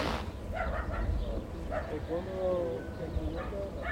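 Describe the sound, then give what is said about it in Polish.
Dogs on the Mexican and American sides of the border near Jacumba Hot Springs bark back and forth at each other, several short barks and a drawn-out yelping whine, over a steady rumbling outdoor background. “Psy szczekają na siebie nawzajem ze strony meksykańskiej i amerykańskiej.”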